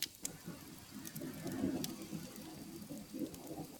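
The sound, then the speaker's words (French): Steady heavy rain hisses throughout, with a low, rolling rumble of distant thunder swelling and fading beneath it. No voices. “Attends, je vais essayer de vous enregistrer le tonnerre mieux.”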